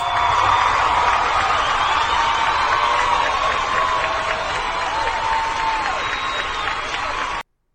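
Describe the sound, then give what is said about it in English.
A large studio audience cheers and claps loudly and steadily for several seconds, a dense wall of whoops and applause that stops abruptly. “There's the studio audience I like so And much. the crowd goes wild.”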